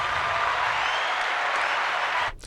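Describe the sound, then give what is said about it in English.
A round of applause: dense, steady clapping from several people that holds at an even level for a couple of seconds, then stops abruptly. No voices are heard. “But that applause is for all the fans that are listening as well, because we appreciate you guys.”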